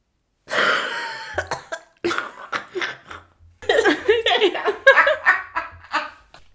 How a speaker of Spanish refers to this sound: le dan ataques de tos